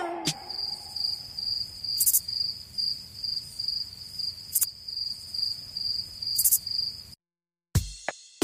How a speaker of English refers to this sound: That was the sound of crickets chirping.